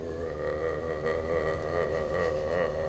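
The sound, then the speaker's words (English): A powerful Dodge Challenger V8 with a Demon engine rumbles loudly as it revs, a steady throaty drone with slight surges in pitch, running continuously with no voices over it. “I mean that Challenger. Dog. Yeah. I think they got that. That bitch sounds so. You said it had like the demon engine in there.”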